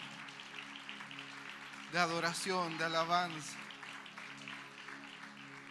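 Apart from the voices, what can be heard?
audience applause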